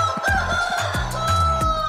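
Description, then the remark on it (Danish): A rooster crows loudly, a sustained, strained call filling the whole moment, with bursts of clucking and squawking from other fowl layered underneath. “Leveringsdygtige i en god hanekamp.”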